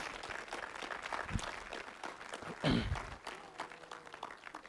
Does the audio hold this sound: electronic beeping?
no